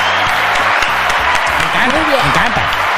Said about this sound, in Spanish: Un aplauso para ustedes que lo lograron.